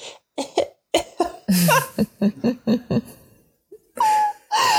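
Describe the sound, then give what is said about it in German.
A voice imitates stifled coughing: a rapid series of short, choked coughs and throaty bursts held back in the mouth, ending with a couple of strained, pitched huffs, fairly loud. “Und ist so fast an seinem ganzen Husten zu krepieren. Und er immer versucht hat, das so zu unterdrücken.”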